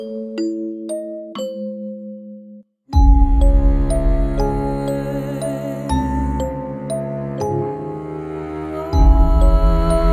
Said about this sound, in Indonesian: Ia membunyikan semboyan genta darurat kepada perlintasan Pondok Betung. Ternyata penjaga perlintasan Pondok Betung tidak hafal dengan semboyan-semboyan genta.